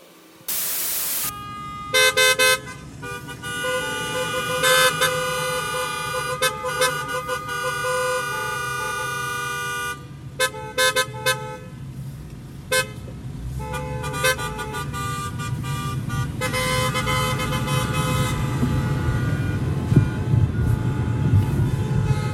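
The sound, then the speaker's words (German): Several car horns of a wedding convoy driving through the streets honk over and over, long blasts and short bursts overlapping, loud against the steady rumble of passing traffic. No one speaks. “was ist das eigentlich für ein seltsamer Brauch, dass man nach dem Heiraten durch die Straßen fährt und hupt?”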